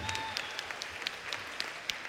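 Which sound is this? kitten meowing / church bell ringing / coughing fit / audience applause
audience applause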